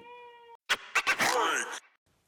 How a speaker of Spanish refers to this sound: Se ha despertado nuestro bebé. El sonido es un poco tenebroso, pero eso que suena al fondo es nuestra niña.